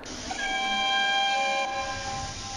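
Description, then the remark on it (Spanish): A steam locomotive whistle sounds one steady, chord-like blast lasting over a second, fairly loud, above a constant rushing background with no one speaking. “Pero yo seguiré viniendo aquí todos los domingos, esperando un milagro del tiempo y escuchar los silbidos de la máquina de vapor”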